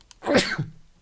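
a sneeze

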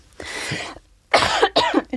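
coughing

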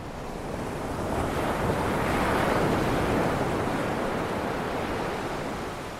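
ocean waves and wind

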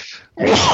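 sneeze

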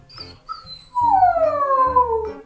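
puppy howling and whimpering

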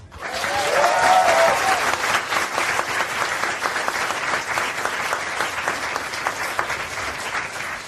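audience applause

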